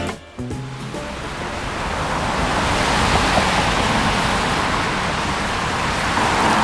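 A steady, dense roar of heavy city traffic, the many cars on the Währinger Gürtel, swells in after a brief musical tail and holds loud and continuous, the engine and tyre noise blending into one unbroken wash with no voices.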